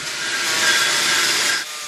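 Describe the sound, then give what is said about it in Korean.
A wooden board being worked by hand in the traditional way by a young man in a large workshop at a college teaching traditional building crafts in Charleston, a steady, hissing scrape of wood that holds for over a second and a half before abruptly stopping. No voices. “또 한 청년은 나무 판자 손질에 한창인데요.”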